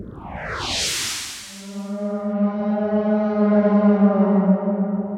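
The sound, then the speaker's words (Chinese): A whale call opens with several quick downward-sweeping whoops, then settles into a long, steady, low moan rich in buzzy overtones, loud and alone with no talking. “哇，乖乖，这是鲸鱼的叫声”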